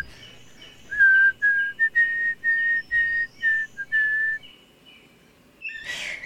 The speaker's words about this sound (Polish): Malarz pogwizduje przy sztalugach.